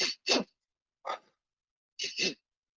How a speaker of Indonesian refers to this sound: Ya, jadi dua kali tarik nafas berurutan lewat hidung, kemudian satu kali hembuskan nafas panjang lewat mulut. Ya teman-teman bisa lakuin sekarang ya.